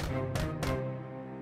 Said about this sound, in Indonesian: Serigala licik itu mengetuk pintu pondok untuk ketiga kalinya.